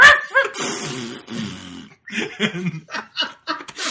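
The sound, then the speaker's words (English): A person vocally mimics a dog, letting out a series of yelping barks and whiny whimpers in quick bursts, fairly loud, with no other speech. “Every time he knocks, it starts barking and then just immediately shits.”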